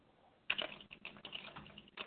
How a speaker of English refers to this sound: I hear you tapping on your keyboard.